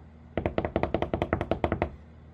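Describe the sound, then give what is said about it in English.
A quick drum roll tapped on a tabletop ahead of announcing the winner of a UFC performance of the year award: about fifteen rapid, even knocks over roughly a second and a half, fairly loud and dull, with no voices. “drum roll, please.”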